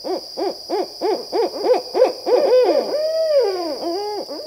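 barred owl hooting call

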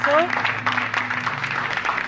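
studio audience applause

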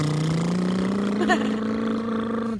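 motorcycle engine revving

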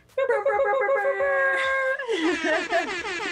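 air horn sound effect

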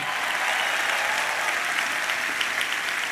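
audience applauding loudly

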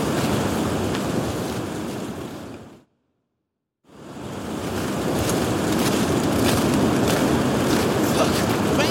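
storm wind

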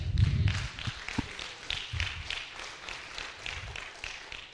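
audience clapping

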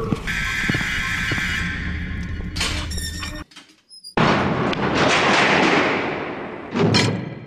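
door noise

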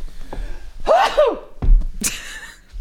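sneeze

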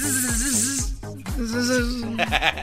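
bee buzzing sound effect

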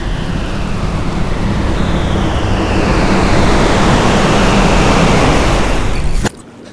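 rushing flood water

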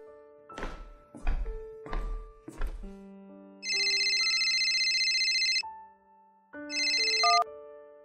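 mobile phone ringtone

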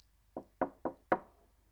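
knocking on a door

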